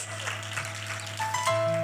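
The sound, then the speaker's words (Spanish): A crowd claps steadily for a couple of seconds, a dense, even patter of applause, with a few sustained electronic keyboard tones sounding underneath. “Alguien tiene que aplaudir porque su familia va a tener campo aquí en la casa, sus amigos, sus hijos.”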